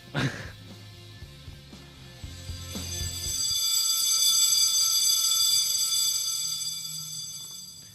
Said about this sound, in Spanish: Ahí sonaba el timbre. Qué, placer cuando sonaba el timbre En la escuela.